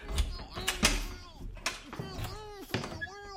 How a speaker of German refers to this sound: Und was war das eigentlich für ein Geräusch? Die drei Musiker hörten auf zu reden und lauschten. Da klopfte doch jemand. Das kam doch. Das, das, das kam doch aus dem Besenschrank.